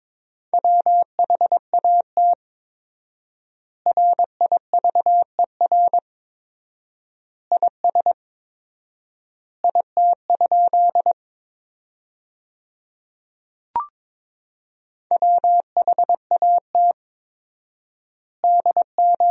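Fast Morse code at 22 words per minute with four-times word spacing, sending sentences from the top 300 words, in a single steady, mid-pitched beep with quick dots and dashes grouped into words and separated by long silent gaps. It plays clearly on its own, with one brief click partway through.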